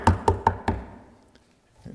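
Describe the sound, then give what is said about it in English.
Four sharp knocks in a quick, even rhythm, fairly loud, like knuckles rapping on a door, imitating someone at the door wanting to sell something, followed by near silence and a faint soft thump at the end. “startled me awake. I look up, somebody's at the door wanting to sell something.”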